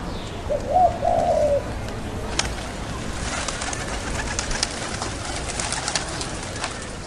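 A pigeon in a park gives a low, soft warbling coo near the start, then steady outdoor ambience with occasional faint clicks and rustles continues, with no talking.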